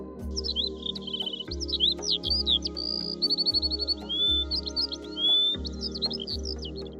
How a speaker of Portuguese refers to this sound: pássaro cantar e respirar ao mesmo tempo